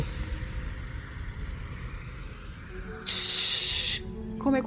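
A sudden, sharp hiss like an oxygen tank being opened bursts out for about a second over a low, steady rumble, then cuts off abruptly.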